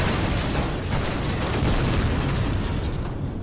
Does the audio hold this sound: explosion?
yes